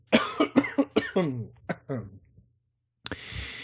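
A loud fit of coughing, around eight or nine harsh bursts in quick succession, then a brief silence followed by a hiss of breath or noise.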